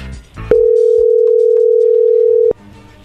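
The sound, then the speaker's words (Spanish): A steady, loud telephone tone sounds alone for about two seconds while a call is being placed, a single unbroken pitch that starts and stops abruptly, with faint background noise before and after. “Bueno, vamos a marcarle, vamos a ver si te manda los chocolates a ti”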